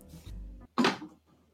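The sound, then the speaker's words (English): A low creak or scrape as an office door swings, then a single solid thud as it shuts, followed by quiet background tone. “And uh, if you if you wouldn't mind uh, closing the door.”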